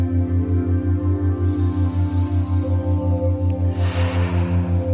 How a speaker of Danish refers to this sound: Trækker vejret dybt.